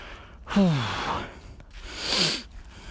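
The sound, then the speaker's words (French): Two heavy, voiced breaths from someone out of breath and tired while walking up a small hill, each a loud gasping exhale with a falling groan, separated by a brief pause. “Ouh là là, vais monter une petite côte là, je suis essoufflé, tellement je suis fatigué.”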